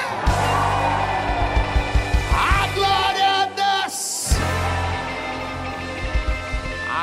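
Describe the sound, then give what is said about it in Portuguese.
A large crowd in Rio de Janeiro, Brazil, shouts and yells together, a loud, sustained roar of many voices with a sharp, piercing cry rising above it near the middle, then the cheering carries on. “Então agora grita igual só os cariocas conseguem, solta aquele grito, hein?”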